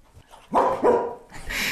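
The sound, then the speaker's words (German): A five-year-old Belgian Shepherd dog gives two quick, loud barks, followed by a softer rustling noise, with no talking over it. “Ein äh, fünf Jahre alter belgischer Schäferhund ähm, und sieht noch sehr jung und elanvoll aus auf jeden Fall.”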